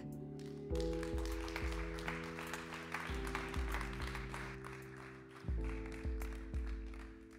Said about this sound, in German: begrüßt ihn mit einem ganz herzlichen Applaus. Vielen Dank.